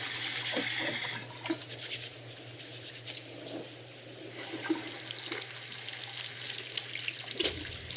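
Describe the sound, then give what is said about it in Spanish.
Water runs steadily from a tap for several seconds, with soft splashing and rubbing sounds of a person scrubbing their hands hard under the stream, fairly loud, ending with a low hum cutting off. “Oh, si tan solo me tallo tantito más fuerte.”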